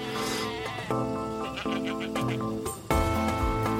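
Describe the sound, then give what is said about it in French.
A frightened, stressed goat, wedged between backpacks on the roof of a bus, bleats repeatedly and loudly, its wavering, nasal cries following one another in a steady run with a sharper, louder call near the end. “Elle est vivante, bien sûr, elle n'arrête pas de de Bélé.”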